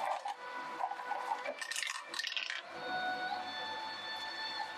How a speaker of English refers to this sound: Let's where's the dice. Can I roll dice too?